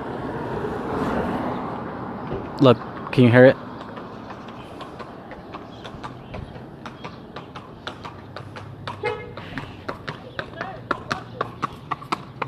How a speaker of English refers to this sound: There's a guy in a horse coming by right now. Can you hear the horse? Uh, the horse trotting? Is that what you call it?